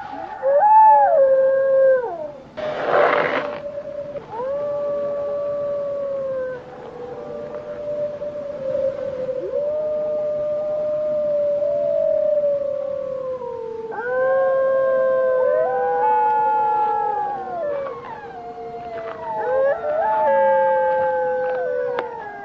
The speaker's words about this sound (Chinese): Yuri, there's a wolf howling. Oh, yes, I've. I've seen them. They're frightened. They won't harm us.